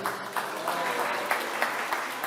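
A group claps steadily for a couple of seconds for a child who has just recited a Bible passage from memory, a dense patter of hands with a few sharper claps standing out; no one speaks over it.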